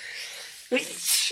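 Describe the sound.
A single sneeze, fairly loud: a drawn-in breath builds up, then bursts into a sharp, breathy explosion, with a short voiced sound trailing off at the end.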